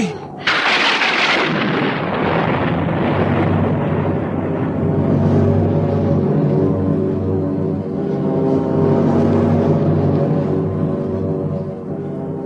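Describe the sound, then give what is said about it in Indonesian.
A violent storm at sea roars loudly and continuously, opening with a sudden thunderous crash, then a dense, rumbling wash of wind and surging water that never lets up. “angin terus mengamuk. Perahu tongkang nampak sama sekali tak berdaya menghadapi samudra yang sedang murka.”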